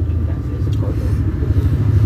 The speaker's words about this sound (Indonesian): Bentar ini ya, apa ada suara motor